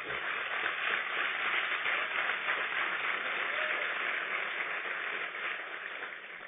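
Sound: audience applauding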